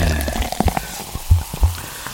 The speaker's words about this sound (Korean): 그러니까 저 탄산음료 이게 맥주도 좋고 콜라 사이드면 뭐 이렇게 컵에 따르는 소리 거품이 확 나면서 아우 마시면 아주 속이 시원해지죠.